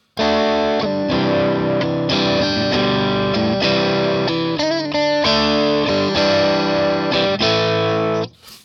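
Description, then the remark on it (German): A distorted electric guitar played through the lead channel of an amp plays a steady run of loud chords with a saturated, buzzing tone, changing roughly every second before cutting off abruptly at the end. “Und ähm, du kannst ihn ja noch mal kurz ausschalten und geh mal auf den Lead-Kanal von dem Amp der ist ähnlich von der Verzerrung, ne?”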